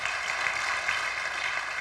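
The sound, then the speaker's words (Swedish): A crowd claps steadily to welcome first-time visitors, a dense, even wash of many hands applauding without pause, fairly loud and with no voices on top. “Kan vi inte bara ge en gigantisk applåd?”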